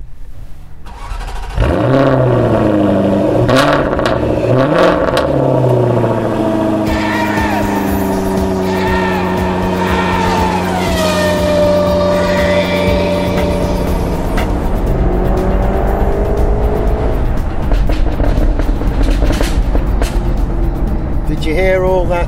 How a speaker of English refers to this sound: That's the sound of the car that I'm in at the moment. It's actually got a button on it which allows me to turn off the through flowing exhaust option.